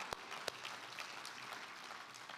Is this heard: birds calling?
no